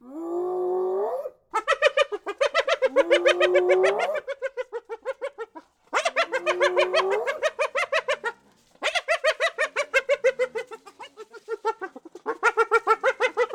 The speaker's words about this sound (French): le rire de la hyène. Hein, ce rire n'a rien à voir avec notre rire à nous. Hein. On l'appelle rire par homologie parce que ça ressemble à notre oreille. Mais en fait, la, hyène qui, émet ce giggle, elle n'est pas du tout en train de rire.